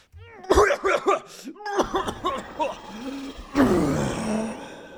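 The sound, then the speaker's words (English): A person performs a series of exaggerated, raspy coughs and choking sounds, imitating a Myconid creature coughing up a cloud of spores, loud, with strained vocal bursts running together over a few seconds. “Cough up a cloud no. of spores.”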